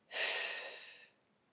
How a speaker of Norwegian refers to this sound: Men den øvelsen går på at du skal sette deg godt til, sted, til rette, lukke øynene, puste godt inn og godt ut.